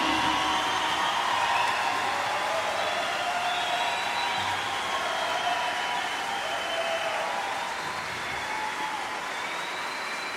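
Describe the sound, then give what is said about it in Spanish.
Sustained applause from a large audience at a night concert in Bogotá for the Orquesta Filarmónica Juvenil, a steady dense wash of clapping that holds at an even, loud level for the whole stretch with no voices standing out. “Queremos, por favor, que le den un fuerte aplauso a la Orquesta Filarmónica Juvenil que nos acompaña esta noche.”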